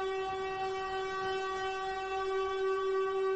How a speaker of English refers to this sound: All right, all right. Enough of the alarm. Enough of the alarm that probably woke a lot of y'all up, right?